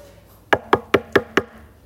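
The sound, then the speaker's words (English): Five quick, evenly spaced knocks on a wooden door, sharp, rapping in a steady rhythm with nothing else around them. “Like, full speed, as fast as they could, knocking on every door and imagine this they're going up to a door”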